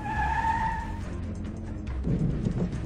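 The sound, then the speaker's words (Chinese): An ambulance's brakes squeal in a high, steady whine for about a second, then fade into a low engine rumble, with a heavier lurching thud near the end as it comes to a stop. “没过多久，救护车停了下来。”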